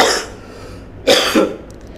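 coughing

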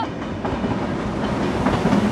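train passing on rails

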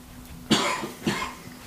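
coughing

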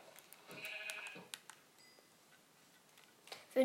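sheep bleating

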